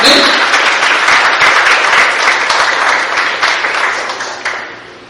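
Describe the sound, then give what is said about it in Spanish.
A crowd applauds the Lord in the morning, steadily for about five seconds, a dense, loud wash of many hands clapping that tapers slightly toward the end, with some voices mixed in. “Denle un aplauso al Señor esta mañana, hermano, con todo su corazón.”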